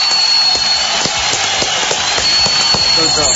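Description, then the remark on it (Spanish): Steady, loud applause thanking guests at the close of a programme, with many hands clapping in a dense, crackling patter that holds evenly for a few seconds and has a few sharper claps standing out. “Aplauso grande, gracias, mucho querido.”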